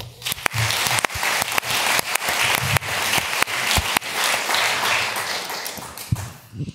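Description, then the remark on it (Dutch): Sustained applause from an audience welcoming a teacher from OBS De Vier Windstreken with 42 years in education, a dense, steady wash of clapping with a few sharper individual claps standing out, holding strong for several seconds before beginning to thin at the end. “Geef haar een warm applaus.”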